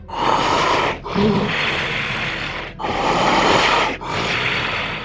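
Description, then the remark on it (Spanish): A voice imitates the deep, heavy breathing of something very large: four long, loud, breathy inhales and exhales in a slow, steady rhythm, with no other talking. “Una pinche respiración.”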